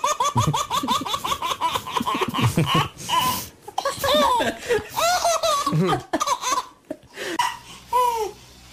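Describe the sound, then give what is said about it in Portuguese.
A child laughs loudly in long, high-pitched, rhythmic bursts, breaking into giggly cackles with quick gasping breaths between fits, continuing for several seconds. “Eu fui buscar aqui um áudio, porque nada como ouvir uma criança rir para começar a rir também.”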